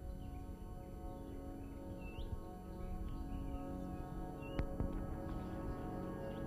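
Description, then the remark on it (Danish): A bird sings faintly, a few short rising chirps scattered over a steady low rumble of background noise, with a couple of soft clicks near the end. “Kan vi høre fuglen?”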